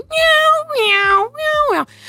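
A newly adopted cat meows loudly three times in quick succession, each call long and insistent with a wavering pitch, followed by a brief quieter sound at the end; it kept its owner awake all night and was heard by the downstairs neighbours.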